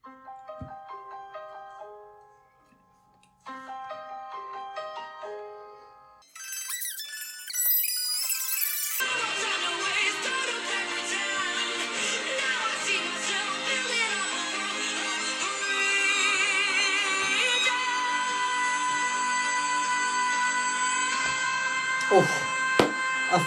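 A pop song plays: sparse bell-like synth notes open with a brief pause, then a swell builds into a full, loud arrangement with steady dense instrumentation and vocals continuing to the end.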